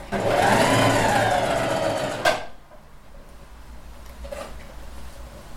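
A sewing machine, run by its foot pedal, whirs steadily for about two seconds, then stops abruptly with a click, leaving quiet background noise and a faint rustle.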